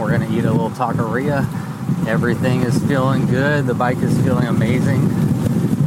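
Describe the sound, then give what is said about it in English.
Steady headwind buffets the microphone while a man cycles on pavement heading into Groveton on an almost 90-degree day, a loud, continuous low roar with heavy rumbling gusts filling the background while he talks over it throughout. “You can probably hear that wind going dead into a headwind right now, but it's almost 90 degrees and a little breeze feels nice.”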